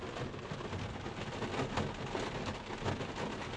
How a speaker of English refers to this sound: I apologize if you're hearing a pitter patter on the roof of my truck right now. It's because it's raining and I'm recording this in my truck outside of the gym.